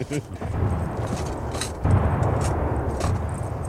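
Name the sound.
artillery cannons firing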